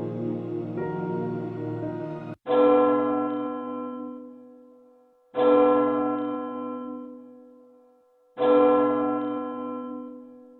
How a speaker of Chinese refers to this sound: 随着钟声敲响，各院弟子纷纷涌了出来，然后各自脚步或急或缓地赶往就近的佛殿。